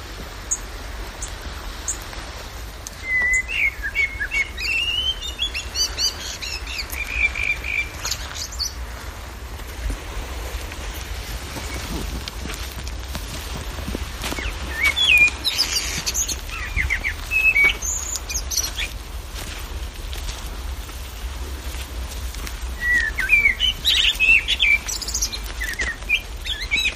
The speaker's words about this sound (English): Isn't it just the nicest sound? Sound of a male blackbird singing at twilight. One of the best sounds. And the thing I like about the blackbird is he keeps making up tunes. Really, really clever.